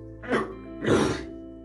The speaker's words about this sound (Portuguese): Nossa, eu não acredito que a tosse voltou, velho. Puta merda.